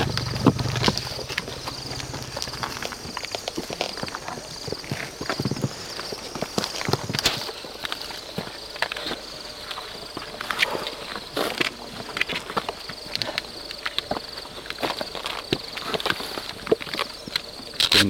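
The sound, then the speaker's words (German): An outdoor wilderness field recording in Kruger National Park: a steady, high insect drone hangs over soft wind, with scattered clicks and rustling steps throughout and no one speaking. “und werde jetzt das letzte Soundscape des Tages anspielen aus dem Krüger Nationalpark.”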